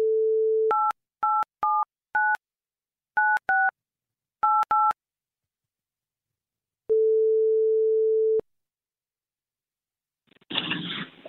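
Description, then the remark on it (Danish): An outgoing phone call placed by the Radio 4 programme Folkedomstolen: a dial tone gives way to a quick series of touch-tone key beeps, then after a pause a single steady ringback tone sounds for about a second and a half before a crackly pickup noise. “Dejlig kvinde, som vi ringer op til nu.”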